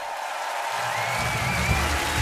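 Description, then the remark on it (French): A student radio show's closing end-credits jingle with dense, steady applause throughout, a low musical bed swelling in partway through; loud and continuous, with no voices. “Euh, non, là, tu viens de mettre le générique de fin.”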